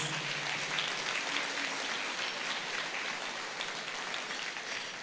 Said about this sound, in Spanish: ¿Cuántos le dan un aplauso de gloria a nuestro Dios?